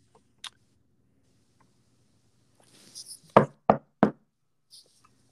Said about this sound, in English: So um, we'll start when you guys knock on the door, and I'll open it up.